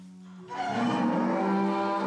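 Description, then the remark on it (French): Cattle moo loudly, a long drawn-out bellow swelling in after a brief low hum and holding steady to the end, with no talking; the cows belong to a breeder's herd in Béarn, France. “La vache, tu la connais depuis toute petite, depuis qu'elle naît.”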